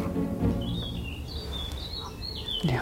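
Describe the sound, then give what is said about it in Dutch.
A blackcap sings outdoors, a thin warbling phrase over low background rumble, continuous across the moment with no voices. “Dat is een zwart kopje. Heel mooi. Is weggevlogen.”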